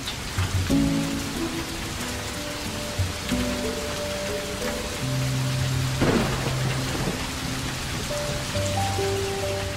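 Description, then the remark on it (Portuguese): Steady rain hisses throughout a thunderstorm, with a low rumble of thunder rolling in partway through and sustained musical tones playing softly underneath. No one speaks. “Quando criança, meu pai me ensinava que depois de um raio contam-se os segundos até o barulho do trovão.”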